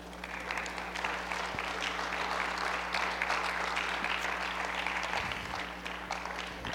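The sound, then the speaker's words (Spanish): An audience claps steadily for several seconds, a dense wash of hand claps with no voices standing out, holding a fairly even loudness throughout. “¿Todavía puedes aplaudir o ya estás muy regañado?”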